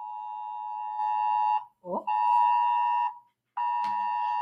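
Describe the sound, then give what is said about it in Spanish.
A loud, steady electronic emergency alert tone from a phone during a Civil Protection test, with sharp harmonic overtones, sounds in long blasts, broken by two short gaps, with a brief voice cutting in during the first pause. “Que te, suena el teléfono, la alarma, que están haciendo pruebas de protección civil.”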